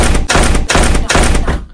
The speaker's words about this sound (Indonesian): ada suara yang kecil banget guys suara kayak gedor-gedor pintu di situ Mister Simple kayak wah ini suara dari mana nih guys suaranya tuh bener-bener nyaring banget ini kayak bukan manusia yang gedor pintu ini karena suaranya tuh kenceng banget